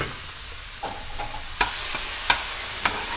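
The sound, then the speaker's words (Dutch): Steady hiss of wet konjac rice sizzling and drying in a hot wok on high heat (not a real flame), with a few sharp scrapes and clicks of a spatula stirring at irregular intervals; no voices. “Ik sta al klaar met cognac rijst. Die ga ik wokken.”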